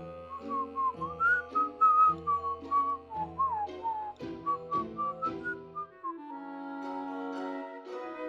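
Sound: person whistling a tune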